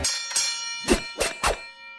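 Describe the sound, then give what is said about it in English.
Bright bells ring out in a festive Christmas holiday music snippet, with five quick jingling hits over sustained chiming tones, moderately loud, with no voices. “But do I hear holiday music?”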